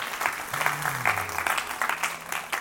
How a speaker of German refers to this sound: Wow, merci viel, viel euch als Worship-Team. Das ist heute Morgen um halb sieben da, haben probiert und geübt und gemacht. Wir haben mal einen riesen Applaus.